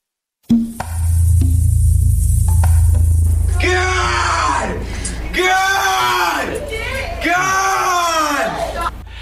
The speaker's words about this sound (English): screaming as he entered a courtroom Sunday for his first appearance before a judge.